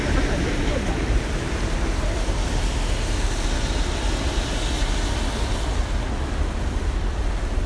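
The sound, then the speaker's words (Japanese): Heavy rain that has grown much stronger pours down on a city street, a loud, steady hiss and roar that stays constant for the whole stretch, with no pauses and no clear voices rising above it. “雨がすごい強くなっちゃって。”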